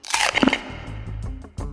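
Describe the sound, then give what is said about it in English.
A loud crunchy bite into Nerds Gummy Clusters, fruity, tangy gummy candy clusters: a burst of crackly crunching followed by softer, squishy chewing that continues for a moment, with no one speaking. “Have you ever wondered what it's like to bite into Nerds gummy clusters?”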